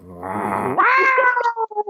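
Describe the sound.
A person mimics an irritated cat, imitating how someone reacts when disturbed while eating, starting with a low, grumbling tone that jumps into a long, whiny meow trailing off at the end. Fairly loud and heard alone.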